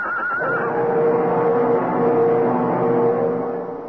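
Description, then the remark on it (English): A horse whinnies loudly after slipping on an icy patch on a road and falling with its rider: a high shrill cry at the start falling into a long, strained, wavering neigh that holds for several seconds before tapering off. No one speaks. “With a slithering crash, horse and rider went down.”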